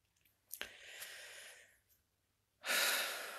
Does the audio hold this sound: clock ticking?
no